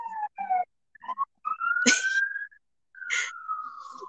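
A police car siren sounds with a few short choppy tones, then two long wailing notes that slowly slide downward, each broken by a rough burst of noise, fairly loud and without talk.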